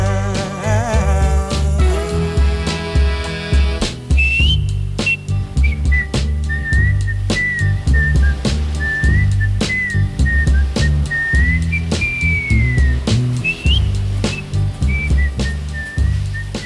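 A clear whistled melody drifts over a steady soul band groove of bass, drums and guitar, the tune rising and falling in relaxed phrases for most of the passage with no one speaking.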